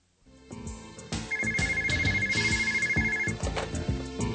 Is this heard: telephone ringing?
yes